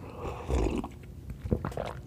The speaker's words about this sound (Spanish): vamos a darle un sorbecito de café otra vez.